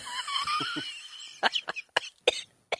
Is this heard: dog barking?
no